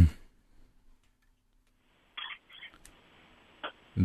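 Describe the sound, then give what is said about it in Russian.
A phone line opens with a faint, narrow hiss, followed by a few soft clicks and crackles as the call connects. Brief bits of voice sit at the very start and end. “Еще один звонок.”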